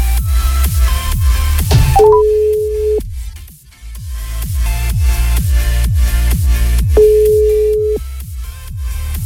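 A phone ringback tone sounds twice, each a steady mid-pitched one-second beep about five seconds apart, with a few short rising blips before the first. A rhythmic musical beat plays underneath throughout.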